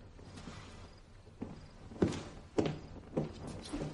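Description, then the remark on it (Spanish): Several soft, dull footsteps of a person walking toward a door fall at a steady, unhurried pace, five or so thuds over a low, constant background hum, with no voices. “Va hacia la puerta.”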